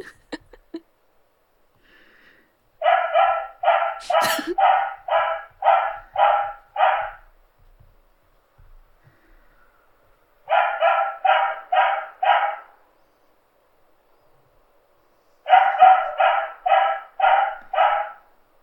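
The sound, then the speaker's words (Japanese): A dog barks in three rapid bursts of about five to six barks each, loud, with short pauses of silence between the bursts and no talking. “こちらで犬語犬語を翻訳させていただきました。”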